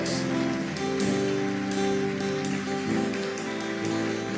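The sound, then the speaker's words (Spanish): A crowd applauding loudly and steadily for God after a prayer, a dense wash of clapping that holds for several seconds, with sustained musical chords playing underneath and no one talking. “¿Por qué no le das un aplauso fuerte a Dios?”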